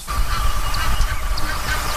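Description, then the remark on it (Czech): Water birds call steadily over a low outdoor rumble, with harsh goose-like honks and brief higher notes repeating throughout at moderate distance. “to jsou vodní ptáci, tady můžou být husy nilské, různé čejky a takovýhle druhy.”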